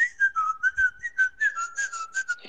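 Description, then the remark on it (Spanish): Someone whistles a song in a steady run of short, rising and falling notes with brief gaps between them, clear, with no talking. “O sea, van cantando una canción con el silbido.”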